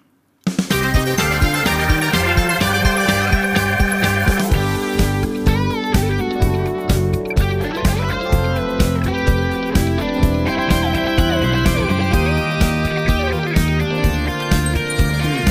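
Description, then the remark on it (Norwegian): The Gitarpodden intro jingle, played from tape, kicks in abruptly and plays continuously, loud, with distorted, driving music over a steady pulsing rhythm and no voices. “Nå ruller teipen. Vi skal ikke høre på med … nå. Nå skal vi høre gitarpodden-introen.”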